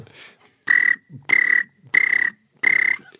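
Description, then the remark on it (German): A voice imitates a cricket chirping: four loud, buzzy, pulsing chirps in an even rhythm, each separated by a soft breath or short pause. “Kann, kannst du mal die Grille machen?”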